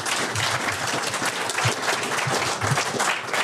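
An audience breaks into steady applause for two speakers who have just been thanked for their information, many hands clapping in a dense, even wash of sound that holds at a fairly loud level for a few seconds without anyone speaking.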